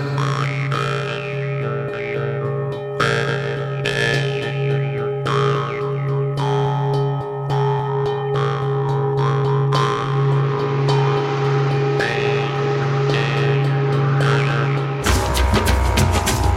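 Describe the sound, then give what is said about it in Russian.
A jaw harp (vargan, also called khomus) twangs steadily as its small metal plate vibrates, its low buzzing drone held throughout while bright overtones shift in quick rhythmic pulses; it cuts off near the end into a brief burst of harsh noise. “Вибрация, то есть дрожь от маленькой металлической пластиночки, передается всему человеческому телу, и варган начинает звучать.”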